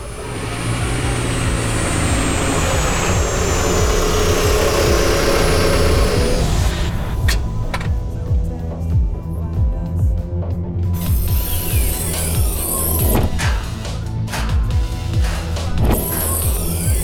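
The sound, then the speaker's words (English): A lime green and chrome vehicle pulls up in front of a store, hovers for a few moments and parks: a loud, steady mechanical drone with a slowly falling whine, shifting midway into rattling, ratchet-like clicks and hisses as it settles. No voices. “A lime green and chrome vehicle of some sort pulled up in front of the store, hovered for a few moments, and then parked.”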